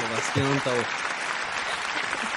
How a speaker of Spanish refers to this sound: aplausos grabados